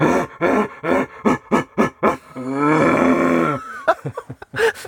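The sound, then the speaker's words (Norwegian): A man imitates a rutting red deer stag: a run of short guttural grunts building into one long, drawn-out bellowing roar, then a few more grunts, loud with no other talk. “si at det var 20 bukker, da, cirka, da, som gikk rundt og brøla sånn som det her”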